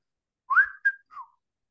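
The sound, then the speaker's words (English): A widgeon whistle duck call is blown: three quick whistled notes, the first sliding upward, a short sharp chirp, then a softer falling note, with no talking. “I might just go widgeon whistle, right?”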